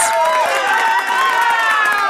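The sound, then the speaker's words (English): A loud crowd cheers continuously, a dense wash of many voices yelling and whooping together at steady intensity for a couple of seconds, with no clear individual speech. “I let the crowd uh, finish.”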